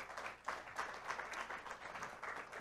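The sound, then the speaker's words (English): A crowd applauds steadily for two women called up to the front, many hands clapping in a dense, continuous wash of sound with slight swells, moderately loud and with no voices over it. “Would you give these two special ladies a big round of applause?”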